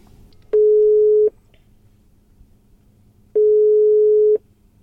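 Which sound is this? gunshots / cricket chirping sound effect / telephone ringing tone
telephone ringing tone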